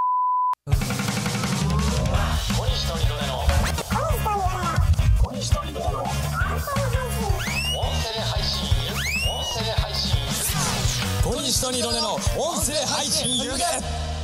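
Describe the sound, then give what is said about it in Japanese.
A short electronic beep opens into a loud, busy radio-style jingle made in the style of TBS Junk's Wednesday show, Yamasato Ryota no Fumou na Giron: dense music with punchy bass, swooping synth sweeps and voice-like vocal snippets, running steadily for about fourteen seconds. “TBS ジャンクのような ジングル作っていただき ありがとうございます、ありがとうございます。”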